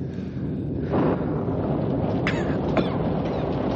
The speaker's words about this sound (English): Listen. Listen. Rain. Rain. Cool water. Cool air.